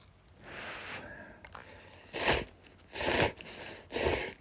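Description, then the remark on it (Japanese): Noises of someone eating soy-sauce-flavored Super Cup instant cup noodles with added ichimi chili pepper: a soft rustle, then three loud wet slurping and chewing bursts about a second apart, with no talking. “はい、それでは咀嚼音しますのでご注意ください。いただきます。”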